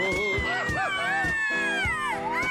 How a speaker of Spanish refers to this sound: Ándale, la algarabía, la gritiza, la mujer desaforada, alocada, entregada, mi querido Pontón. ¡Qué bárbaro! ¡Qué bárbaro! Cosa tremenda, siempre esos gritos que agradezco martes y miércoles aquí que me dan energía para seguir al día.